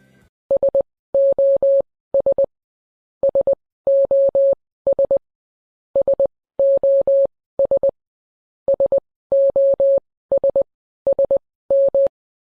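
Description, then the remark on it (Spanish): A steady, high-pitched electronic tone beeps out the Morse distress signal SOS, three short, three long, three short, repeating about three times in a clear, even rhythm with no voices. “Entonces vamos a escuchar el SOS en código Morse.”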